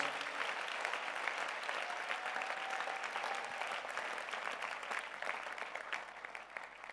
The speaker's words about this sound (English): Clap for the Lord.